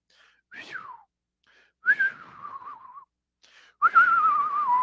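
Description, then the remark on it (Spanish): A person whistles three soft, descending notes, each a short sliding tone with a breathy onset, imitating the dainty fart of an elegant person; fairly quiet, with brief pauses between whistles. “Eh, la gente elegante cuando se echa un pum suena. fiu, fiu.”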